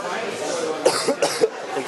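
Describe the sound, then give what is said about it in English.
A short burst of three or four harsh coughs in quick succession, fairly loud against a low background murmur. “excuse my coughing.”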